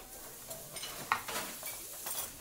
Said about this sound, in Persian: دنبه ها آب شد آها حالا گوشت رو میریزیم توی قابلمه عاشق صدای جیلیز و شما خب زیر گاز رو کمتر میکنیم مواد رو نسوزونیم